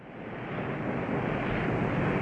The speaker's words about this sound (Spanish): El mar, inmenso, impetuoso como el amor.